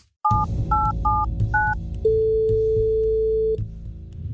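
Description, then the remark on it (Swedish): Four quick touch-tone beeps as a phone number is dialed, then a single steady ringing tone that holds for about a second and a half, over a low background hum. “Vi gör så här att vi ringer upp Dan.”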